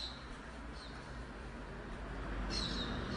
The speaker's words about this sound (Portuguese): Olha os passarinhos aí